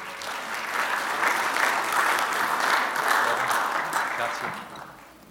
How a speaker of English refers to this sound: Thank you, praise team. Give them a hand, a round of applause.